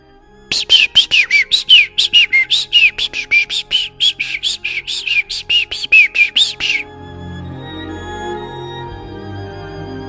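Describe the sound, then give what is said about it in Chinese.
Small birds chirp in a quick, steady run of about two dozen bright, high tweets lasting several seconds, then the chirping stops and a soft, low hum carries on. “小鸟们叽叽喳喳唱起了欢乐的歌。”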